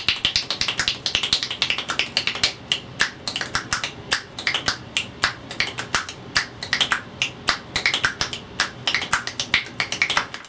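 Rapid, rhythmic finger snaps layered into a musical pattern, sharp crisp clicks repeating in a steady groove for about ten seconds, with no voices.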